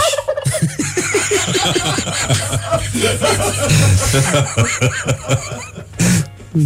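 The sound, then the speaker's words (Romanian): A person imitates a turkey, letting out a rapid, warbling gobble in a loud voice that rattles on for several seconds, with a brief laugh-like burst near the end. “Ăla cu curcanii de-l făceai tu mai devreme.”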